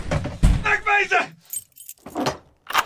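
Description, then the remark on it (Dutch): Bright metallic jangling of keys in short bursts as a door is locked, following a brief vocal exclamation at the start. “Gauw, de deur op slot”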